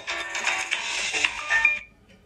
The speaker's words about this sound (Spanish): Y yo, pues mira, pues siempre lo apago el teléfono, pero hoy no lo he puesto en silencio.